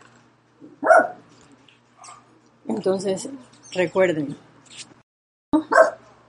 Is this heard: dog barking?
yes